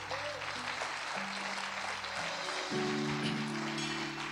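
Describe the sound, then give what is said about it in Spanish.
An audience claps loudly and continuously for the Lord, with scattered cheering voices, while sustained low keyboard chords hold and shift underneath throughout. “Dáselo fuerte al Señor.”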